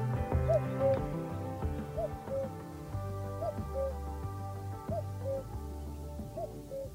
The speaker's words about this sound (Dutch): Koekoek over de koekoek. Die ga ik eens even laten horen.